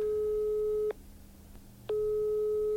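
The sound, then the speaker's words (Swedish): A telephone ringback tone while calling: a steady electronic tone sounds, cuts off for about a second, then returns, clear over a quiet line with no one speaking. “Vem ringer vi där?”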